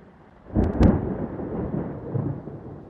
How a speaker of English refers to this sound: I got a quiet. I got a quieter thunderstorm button.